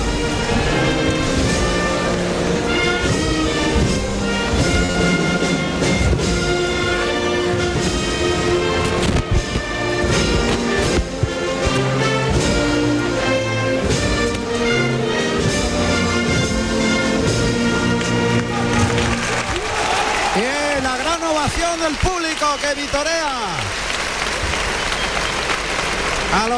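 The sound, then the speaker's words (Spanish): A brass band plays the national anthem loudly and steadily in the bullring of Almería, then the music stops and the crowd breaks into applause and shouts for the last several seconds. “Y suena el himno nacional en la plaza de Almería.”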